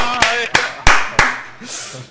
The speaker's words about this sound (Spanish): Y aplaudimos por ese dibujo, va.